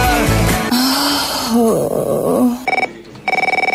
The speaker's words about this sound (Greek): Χτύπησε το τηλέφωνο, δύο φορέ μάλιστα. Δύο άνθρωποι ζήτησαν να κλείσουν θέση για του 25.